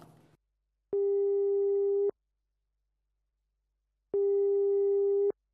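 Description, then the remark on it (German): A telephone ringing tone for a caller's incoming call sounds twice, each a steady, buzzy tone lasting about a second, separated by a pause of around two seconds. It is clear, with no voices. “Oh, da kommt ja schon der erste Anrufer.”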